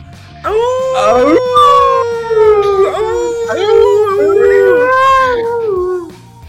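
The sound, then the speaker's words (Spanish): A loud, drawn-out howl from a wolf tied up in a yard rises, wavers and slides through several long overlapping cries for about six seconds, with no talking over it. “Tiene él un lobo, ¿sí? Eh, atado en el patio.”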